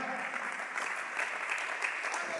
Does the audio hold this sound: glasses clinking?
no